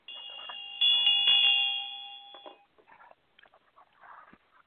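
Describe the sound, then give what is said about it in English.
A small ritual altar bell, placed on the altar, rings clearly, struck twice in quick succession, its bright metallic tone sustaining and slowly fading over a couple of seconds before soft, indistinct sounds follow. “And upon the altar are placed fire, a fire wand with flammable wadding, an ampulla of holy oil covered with a, by a white napkin, and a bell.”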